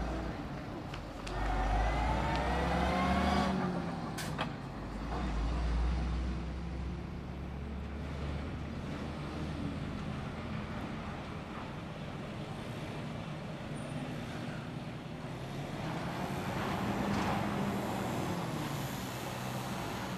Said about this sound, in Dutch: En bij de ingang van de raffinaderij rijden vrachtwagens het terrein op. En die vrachtwagens rijden af en aan